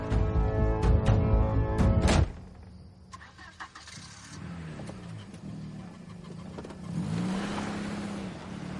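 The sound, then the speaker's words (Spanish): A car engine roars loudly for about two seconds, then settles into a lower running hum, rising and falling in pitch with short revs as the vehicle maneuvers. “Hace maniobras con el coche.”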